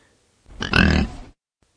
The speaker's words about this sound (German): Ein durchdringendes Grunzen, laut und deutlich.